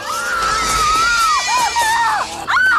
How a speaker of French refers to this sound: Plus d'un millier d'actrices cessaient au rôle de Willy, la chanteuse du cabaret aux ongles fragiles et aux cris perçants.